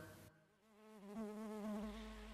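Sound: bee buzzing in flight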